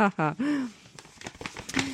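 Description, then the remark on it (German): Paper crinkles and rustles in quick, irregular bursts as a package is opened, following a brief voiced murmur at the start; the crackling is moderately loud and scattered rather than steady. “So, machen wir das Ganze mal auf. Was sehe ich denn da auf dem Papier?”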